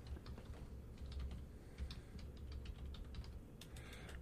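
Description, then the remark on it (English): Rapid, irregular typing on a computer keyboard as someone types a search into Google, fairly quiet, a steady stream of soft clicks with a brief flurry near the end over a low background hum. “Well, I'm typing something into Google.”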